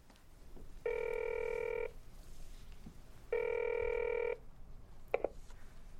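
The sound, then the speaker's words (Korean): Two long, steady buzzing rings of an outgoing call's ringback tone, separated by a pause of about a second and a half, followed by a brief click as the line is picked up. “나는 지갑에 돈을 챙겨놓고 전화를 한다.”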